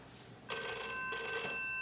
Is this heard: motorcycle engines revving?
no